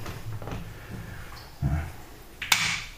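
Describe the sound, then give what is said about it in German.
A dull thud, then a sharp plastic click of a power strip switch being flipped off, with a brief ringing tail. “So, und jetzt schalten wir noch die Leiste aus.”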